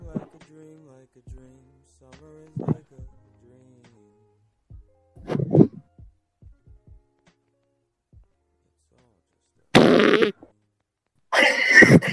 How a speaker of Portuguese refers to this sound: Ah não, ah não, piadinha de peida aqui não. ah não, porra.